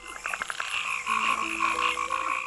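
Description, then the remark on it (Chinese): Frogs croak in a steady chorus, a series of quick pulsing calls at first and then overlapping sustained trills, fairly loud and continuous with no talking. “有一只名叫大眼睛的青蛙，它住的池塘里有很多水藻。”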